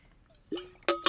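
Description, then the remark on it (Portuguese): Drinking a sip of water: a faint liquid slurp followed by two quick, gulping swallows in a row, short and fairly loud against a quiet background. “Beber aqui um bocado de água e prosseguir aqui com, com, com o episódio.”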